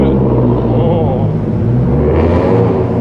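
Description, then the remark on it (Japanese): Steady, loud road traffic with many cars, low engine drone throughout and a car swelling past with a brief hiss near the end. “なかなかな今日はなかなかな車が多いですね”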